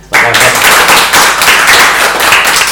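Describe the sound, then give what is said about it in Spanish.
Sustained applause from a group, a dense crackle of many hands clapping that starts abruptly and stays loud and steady throughout, with no voices on top. “Pues, pues ya está, voy a darle un aplauso a chica.”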